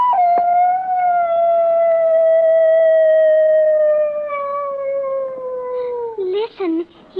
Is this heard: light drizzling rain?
no